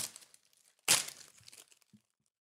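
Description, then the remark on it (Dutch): Gift wrapping paper is torn open in one sharp, loud rip, followed by softer crinkling and rustling of the paper that fades out. “Eh, maak het even open. Het is een cadeautje.”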